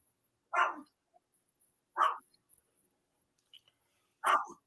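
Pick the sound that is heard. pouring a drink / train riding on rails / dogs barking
dogs barking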